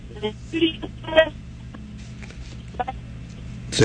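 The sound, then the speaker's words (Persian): A telephone voice breaks up into choppy, garbled fragments with dropouts and a steady hum underneath, ending in a sudden burst of noise. “صداتون رفت نمیدونم نه نه نه سب کنید یه ذره فاصله گرفتید از شاید تلفنتون نفهمیدم چی گفتید”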